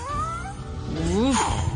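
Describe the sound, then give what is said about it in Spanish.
A human voice imitates a cat's meow, making a drawn-out, wavering whine that swoops up and then falls. It is fairly loud, with no other talk. “Parece la gata bajo la lluvia.”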